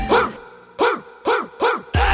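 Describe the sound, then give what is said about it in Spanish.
A run of pitched dog barks, about five loud yips spaced in a steady rhythm, shaped into a short melody like the opening of a birthday tune, a barked birthday song. “la cantamos las ladraditas.”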